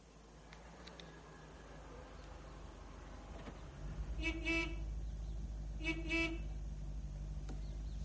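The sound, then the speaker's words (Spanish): A vehicle horn honks twice in short double bursts, fairly loud, over a steady low engine rumble that starts partway through. “John hace un puzzle sobre una mesa y escucha un pitido”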